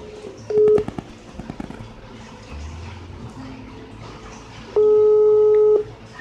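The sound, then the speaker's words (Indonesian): Ringback tones of an outgoing phone call: a brief beep, then after a few seconds a steady one-second tone, over a low background hum and scattered clicks, no one answering yet. “Lama banget nih diangkat.”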